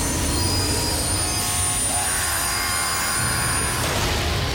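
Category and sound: sound effect, train wreck sound effect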